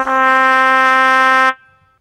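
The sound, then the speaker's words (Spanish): A languid trumpet sound effect: a single sustained brass note, like a droopy trumpet, holds steady for about a second and a half with rich harmonics, then cuts off and fades into silence. No voices. “¿Cómo echaba de menos el ruido de la trompeta lánguida esta?”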